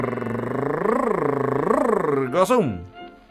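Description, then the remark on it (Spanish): A show host imitates a cat's purr with a steady rolling rumble that swells and dips for about two seconds, then ends in a brief rising meow-like cry. “Ronroné de conductista. Vine gato, vine gato hoy.”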